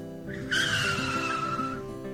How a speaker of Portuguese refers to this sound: Vamos parar o carro, amor. Vamos.